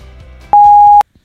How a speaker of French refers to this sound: Après le bip, c'est à vous.